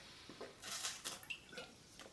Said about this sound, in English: Go ahead and drink my water because that's what I'm about to talk about.